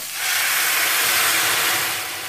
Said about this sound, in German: Das Öl ist heiß und die Zwiebel- und Knoblauchwürfel können im Öl angebraten werden. Und ich gebe 250 Gramm Reis hinzu. Und ich gebe Zucchini, Karotten und Pilze hinzu. Von den 800 Millilitern Gemüsebrühe gebe ich jetzt 700 Milliliter in die Pfanne.